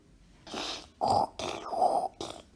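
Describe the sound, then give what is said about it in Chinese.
A child's voice imitates a pig, making about four loud, nasal oinking grunts in quick succession, the third stretched longer than the rest, with no other talking. “…又学起了猪叫。”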